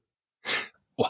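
sneeze

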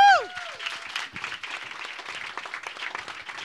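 audience applause and clapping

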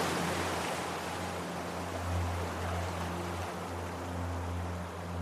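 gentle ocean waves

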